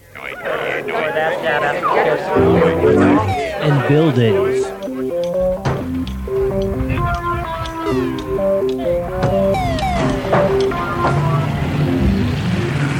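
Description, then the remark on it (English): A dense crowd of voices in a city chattering all at once, overlapping and continuous, a busy, fairly loud hubbub with no single speaker standing out. “Let's build a city. We'll need a lot of people.”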